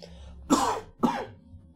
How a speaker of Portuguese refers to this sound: perdão pela tosse